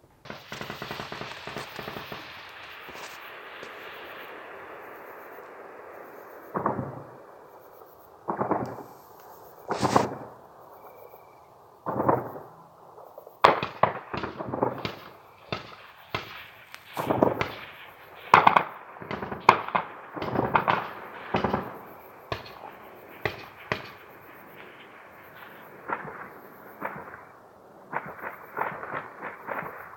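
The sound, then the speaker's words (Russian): Small-arms gunfire rings out at night: after a hissing, whooshing start come many sharp, loud cracks, single shots and rapid bursts at irregular intervals, echoing with no voices. “Я вам скажу, это была еще спокойная ночь, это была какая-то стрелковое оружие, да”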